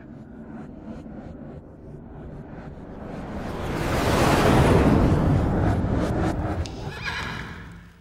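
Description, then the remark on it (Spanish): A horse neighs loudly and whinnies while hooves clip-clop steadily, the sound swelling to a peak midway before easing off, with no one speaking. “¿Te puedes quedar tranquila? ¿Rocinante?”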